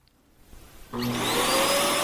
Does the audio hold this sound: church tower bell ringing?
no